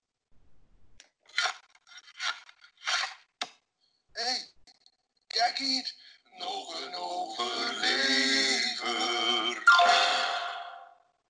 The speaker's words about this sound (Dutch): Wacht, er is een tussenjingle. Tussenjingle. Die klinkt zo.